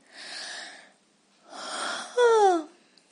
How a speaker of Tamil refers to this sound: Next word, yawn, kottavi vidudal. At the end of tiredness or sleepy mood, we usually yawn. உடல் சோர்வாக இருக்கும்போது அல்லது தூக்கம் வரும் சமயத்தில் வருவது யான் அல்லது யானிங்